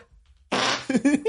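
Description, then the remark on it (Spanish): After a moment of quiet, someone makes a mouth fart noise imitating the explosive rhythmic sounds of Pacific and Atlantic herring: a loud, breathy raspberry blast followed by a few quick, buzzy voiced sputters. “los arenques del Pacífico y del Atlántico producen sonidos rítmicos explosivos similares a las flatulencias”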